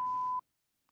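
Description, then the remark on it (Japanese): A single steady high-pitched censor bleep sound effect, played from a smartphone app, lasts under half a second, loud and clean with a faint low hum beneath it, then cuts abruptly to silence. “で、自主規制、ピー音。”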